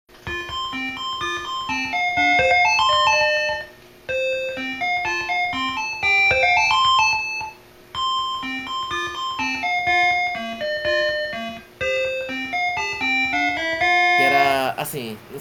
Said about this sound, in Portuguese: Agora também, assim, era melhor jogar com o som da TV um pouco baixo, porque tinha hora que você ficava meio hipnotizado pela música. Era Bob's Gone Home.